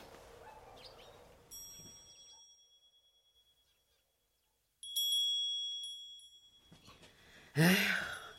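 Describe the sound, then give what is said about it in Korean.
A wind chime rings twice, each strike leaving clear metallic tones that slowly fade into near silence, followed by a soft breathy sigh at the end. “이 풍경은 어찌 안 되는 거야? 올 때마다 거슬리게.”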